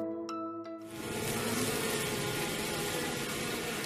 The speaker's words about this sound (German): So klingt's im Bienenstock. Und Bienen sind ja wirklich wahnsinnig faszinierend.